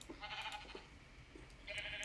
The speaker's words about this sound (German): Ähm. Schafe, geht weg. Das ist mein Bauplatz.